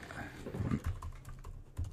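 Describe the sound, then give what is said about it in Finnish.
Quick bursts of typing on a computer keyboard as a question is entered into ChatGPT, a string of soft clicky keystrokes, irregular in rhythm, with faint low murmuring in the background. “naputtelee niin. tämän, tälle, tähän ohjelmaan tämän.”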